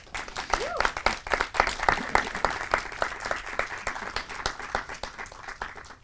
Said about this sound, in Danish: Lad os starte med at give dem en hånd.